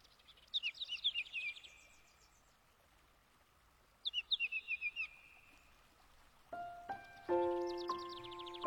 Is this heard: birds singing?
yes